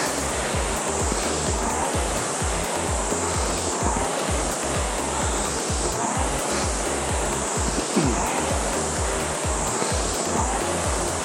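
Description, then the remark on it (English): Steady whooshing rush with a rapid, rhythmic low rumble and clatter running underneath, the rattling, rolling noise of loose or worn rowing machine seat rollers moving back and forth during a rowing workout, loud and continuous with no talking. “I've got very noisy seats today.”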